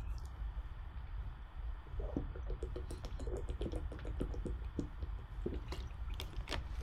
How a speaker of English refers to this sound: Okay, so let me uh, let me let me take a, a, sip of water as I as I think about your question.